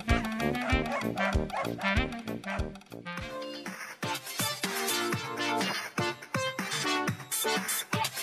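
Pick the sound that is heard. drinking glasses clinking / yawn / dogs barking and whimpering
dogs barking and whimpering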